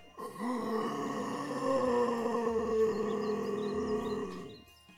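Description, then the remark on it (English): A monstrous creature roars as it is stabbed, its whole head opening like a giant mouth full of small sharp teeth. The roar swells in almost at once and holds loud and steady for several seconds, deep and growling with a harsh, layered rasp, then fades away at the end. Nobody speaks. “And when I say its mouth, I mean actually like the whole head opens like a giant mouth full of m- small sharp teeth, and it roars.”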